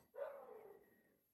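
A dog lets out one drawn-out bark that trails off over about a second, heard from a short distance away with no talking around it.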